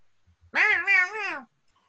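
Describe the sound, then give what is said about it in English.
A single drawn-out, wavering meow, made by a voice imitating a cat, fairly loud, lasting about a second with quiet before and after. “So, hey, uh, Cat, what's your name?”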